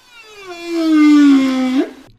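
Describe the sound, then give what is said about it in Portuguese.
A single long, mournful whale call, a low tonal moan with rich overtones that slowly slides downward, swells to full loudness, then rises briefly at the end before fading out. “Quem o diz são os especialistas que estudam os animais e que dizem que as canções que as baleias cantam rimam.”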